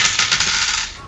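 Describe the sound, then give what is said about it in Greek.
A small four-sided die clatters and rattles across a hard tabletop in a quick burst of hard clicks that settles after about a second. “Κάνει και μια μικρή ζημιά, ρίξε ένα τετράπλευρο.”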